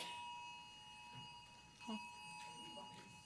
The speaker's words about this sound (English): Do we have a fire alarm?